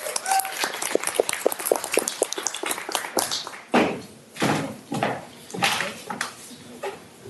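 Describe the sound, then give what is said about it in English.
An audience claps for a speaker from Rangi Ruru in a dense, crackling patter of many hands for a few seconds, then the sound shifts into a few heavier, uneven bursts as the applause tails off. “So give her a big round of applause.”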